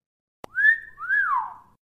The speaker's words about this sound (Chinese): 唯一所有人，包括店外的黑人孩子们和白人邻居都同意的是，Emmett 在走出店门的时候没有说再见，女士，而是挥了挥手，只说了再见，并且吹了一声口哨。